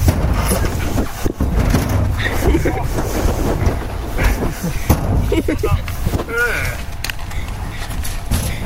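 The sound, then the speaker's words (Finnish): A child slides down a slide, braking a little and not taking full speed, skin or clothing squeaking and creaking against the surface in short rubbing bursts, with heavy outdoor wind buffeting the microphone and faint voices. “Pientä jarrutusta ja natinaa”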